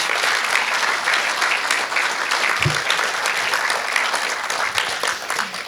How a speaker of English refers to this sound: Well, maybe a round of applause for the man. Everyone, a round of applause for the extraordinary Martin Flanagan.